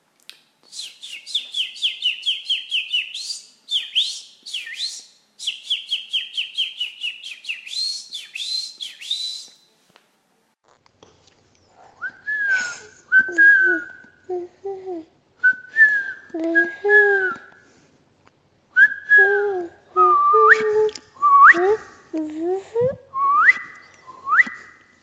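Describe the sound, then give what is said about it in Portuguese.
A person whistles an imitation of the call of an unidentified bird that comes into the speaker's home every morning: two bursts of rapid, high trilling notes, then a series of lower, warbling whistled phrases rising and falling in pitch, fairly loud with no talking. “Eu não sei que pássaro que é, mas eu sei que ele faz um som assim, ó.”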